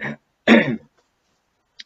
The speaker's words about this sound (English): As I clear my throat here because yeah, I still go through some throat pain here with my with my genetic disease.